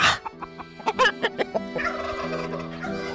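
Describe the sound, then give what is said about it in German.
Chickens calling inside a dark medieval peasant farmhouse shared with the family: a burst of short, rapid clucks and gobbling notes, followed by a longer warbling call. No one speaks. “So eine mittelalterliche Bauernfamilie teilt sich zwei Räume mit ihren Katzen und Hühnern.”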